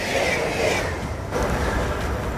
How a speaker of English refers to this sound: Hold on. Let the train go by.